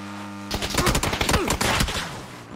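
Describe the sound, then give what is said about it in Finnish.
Rapid bursts of video game gunfire crackle loud, a dense stream of sharp shots overlapping for about two seconds after a brief quiet start. “Ammu sitä päähän!”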